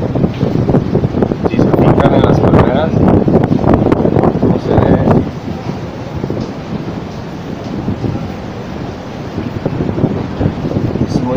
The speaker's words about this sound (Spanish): Eh, en mi zona en estos momentos está, está golpeando una tormenta tropical. Eh, por momentos llega fuerte el aire, el viento